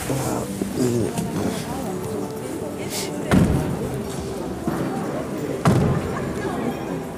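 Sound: car door slamming shut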